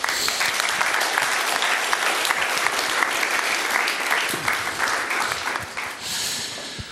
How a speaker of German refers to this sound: Herzlichen Applaus.